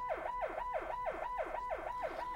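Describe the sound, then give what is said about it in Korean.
An emergency vehicle siren wails in a fast, repeating up-and-down sweep, steady and fairly loud throughout, with no voices over it. “아, 사이렌이 키를 쓰고 우는데 우겠어 잠이?”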